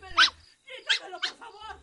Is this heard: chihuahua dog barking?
yes